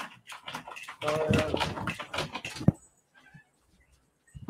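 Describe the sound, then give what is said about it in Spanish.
A dog in a room makes loud, excited vocal noises, a rough burst of barking or whining lasting a few seconds before things fall almost silent apart from faint stirrings. “Oh ya uno me va a ayudar con, esto aquí con el perro.”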